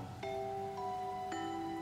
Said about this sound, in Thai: แต่จู่ๆฝนก็ตกลงมาอย่างแรง โดยที่ไม่ทันตั้งตัว